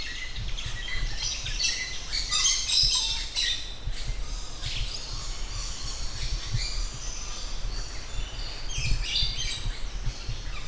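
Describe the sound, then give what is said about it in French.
Jungle ambience heard from the edge of the jungle, full of overlapping bird chirps, tweets and calls, many high and bright, over a constant low rumble and insect-like hiss, steady throughout with no talking. “puis parfois me lève, déterminée à pénétrer ce nouveau monde, puis m'arrête net, à l'orée de la jungle, le cœur battant en entendant tous ces bruits inconnus”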